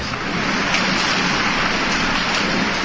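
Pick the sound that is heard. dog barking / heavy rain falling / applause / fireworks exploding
heavy rain falling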